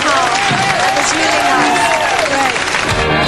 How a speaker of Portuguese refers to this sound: Os aplausos diminuem e ela continua falando da banda, sobre os prêmios que ganharam